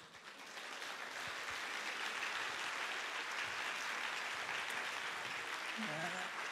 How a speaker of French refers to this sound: Et applaudissez-vous euh, évidemment vous-même avant tout.